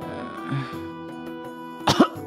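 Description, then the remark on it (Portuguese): A brief cough from a man, one or two quick bursts near the end, heard over a steady low hum with no talking. “Ele começa a tossir, come, começa a sair uma aranha de dentro da boca dele, uma tarântula.”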